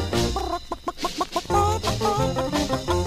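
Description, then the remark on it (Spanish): A hen clucks in a quick series of short, bright clucks, fairly loud, with a steady musical backing underneath, as part of a Spanish-language song. “Es el de la gallina canto aquí.”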